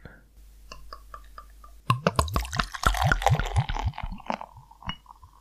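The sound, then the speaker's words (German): Tuborg beer, a pale pilsner of 4.9 percent, glugs and splashes into a glass, starting with a few light drips and then a rapid, bubbly gurgling pour that trails off into foamy fizzing. “Und wir gießen es ein.”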